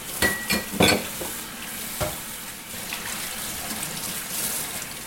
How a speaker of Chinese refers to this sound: 有听到那个杯子，然后还会碰到杯子旁边的手把的声音。那个比较脆、比较亮的，就是啊，这个水会 z 有没有？就是在靠近水了，你听是有变化的